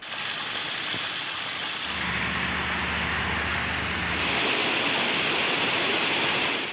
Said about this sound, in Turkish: Muğla'nın Bodrum ilçesinde de benzer görüntüler vardı. Kuvvetli sağanak nedeniyle cadde ve sokaklar göle döndü.